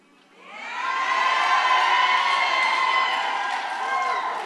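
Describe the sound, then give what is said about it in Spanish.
An audience at a church sermon erupts into high-pitched shrieks and cheers, swelling quickly and holding loud and sustained for several seconds, with many voices blending into a dense roar. “No he terminado, ya están chillando.”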